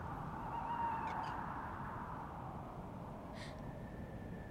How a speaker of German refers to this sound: Was klagt die Eule so, Mami? Hm, weiß ich's.